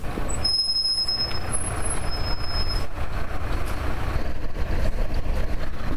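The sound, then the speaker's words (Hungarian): A high-floor intercity bus carrying two or three passengers rumbles past in a quasi-suburban area, its brakes letting out a thin, high squeal for a couple of seconds over steady loud engine and road noise. “hogy mennyire optimális megoldás a magaspadlós helyközi autóbusz itt a kvázi elővárosban, ezt nem tudom megítélni, de így végignézve az autóbuszon van kettő, három utas.”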